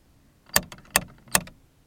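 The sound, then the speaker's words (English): Three heavy metallic knocks from a large bronze dragonfly door knocker on the bright yellow front door of a house, evenly spaced about four-tenths of a second apart, fairly loud with a short ringing decay after each strike. “Walking up to the bright yellow front door, I used the large bronze dragonfly door knocker to announce our presence.”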